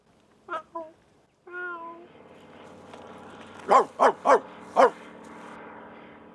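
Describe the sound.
A voice imitates a cat: two short mews, a longer drawn-out meow, then four loud, sharp yowls in quick succession, against a faint background.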